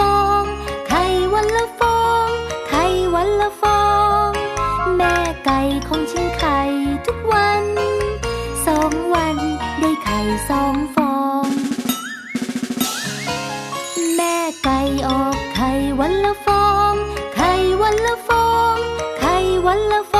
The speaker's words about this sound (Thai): น้องๆค่ะไปฟังเพลงก่อน